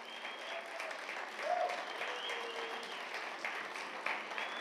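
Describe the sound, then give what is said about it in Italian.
Steady applause from the audience of Chiesa Vita Nuova welcoming two visiting pastors, a dense wash of many hands clapping at an even level for several seconds, with faint voices and a brief higher tone mixed in. “Facciamo veramente un grande applauso.”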